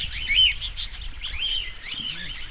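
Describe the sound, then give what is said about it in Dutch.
Dense, continuous chirping and twittering from many small birds such as budgerigars, cockatiels and zebra finches, high-pitched and overlapping, with a low rumble underneath and no one speaking. “En eh, ja, is het een boel kwetter geworden, maar hebben ze wel enorm de ruimte gekregen.”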